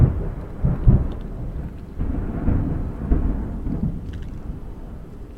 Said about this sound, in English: The thunder and lightning were still boiling over Mount Tamalpais in the north.